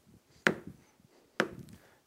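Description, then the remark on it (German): A shepherd strikes his stick against the ground twice, about a second apart: two sharp, woody knocks, each with a short dull rumble after it, done while leading his sheep so snakes and other animals hear it and stay away. There is no talking, only a faint low background. “Das nächste, was er macht mit dem Stecken, er haut so auf den Boden.”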